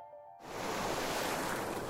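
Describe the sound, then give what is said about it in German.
A brief tonal note gives way to a steady, full roar of sea surf washing in, loud and continuous, like waves rolling onto a shore with no voices present. “Dakar Freestyle: Meer”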